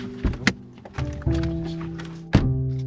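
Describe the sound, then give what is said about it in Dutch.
Car doors thunk shut as people climb out of a car in a street in Eefde, a village near Zutphen. Several dull heavy knocks are spread over a few seconds, with a low steady hum running underneath and no voices. “In de straat waar hij opgroeide, stappen we uit.”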